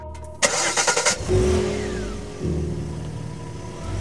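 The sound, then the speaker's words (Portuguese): A car engine cranks with a quick series of rhythmic bursts, catches, and revs up, then settles into a steady running hum with another rev partway through, as a man leaves a house, gets into the car and drives away. No one speaks. “Ele sai da casa, entra no carro e vai embora.”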